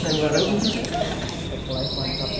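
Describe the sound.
A bird calls with three quick, high descending whistles, followed by a steady, sustained high note, over a low background murmur of voices.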